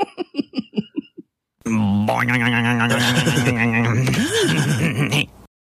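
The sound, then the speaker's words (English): A doorstop-style boing sound effect: a quick run of rhythmic pulsing bursts, then a loud, sustained wobbling twang that sweeps up in pitch, warbles for a few seconds and cuts off abruptly. “It sounds like the noise to represent a boner, like in a in a screwball, you know, like a a doorstop.”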